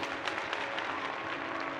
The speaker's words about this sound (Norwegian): Det var Sovjetunionens leder Nikita Khrusjtsjov som hadde innkalt til møte. Alle i salen reiste seg og klappet.